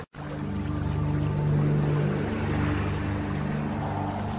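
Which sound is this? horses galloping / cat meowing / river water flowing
river water flowing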